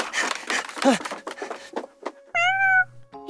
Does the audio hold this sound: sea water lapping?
no